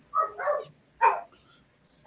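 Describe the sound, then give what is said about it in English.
A terrier and beagle mix dog barks several times in short bursts: a quick double bark, a pause, a single bark, then another starting at the end, with no talking over it. “And my, my, dog might have a question too, but we'll let him go.”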